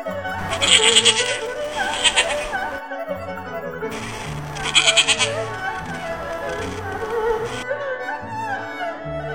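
Sheep bleating in two long, quavering, nasal calls separated by a short pause, fairly loud and strongly harmonic, with no talking over them.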